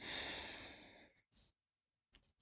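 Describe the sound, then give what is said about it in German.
A single long, slow, deep breath drawn in with a broad airy hiss, swelling then fading over about a second, followed by a few soft short breath sounds and small clicks; one of three long breaths taken in a ritual before a meal. “Und dann nehmen wir drei lange Atemzüge, also wirklich so”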